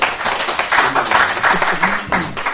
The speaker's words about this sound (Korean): 저는 일단은 박수를 쳐드리고 싶어요. 네, 어. 박수.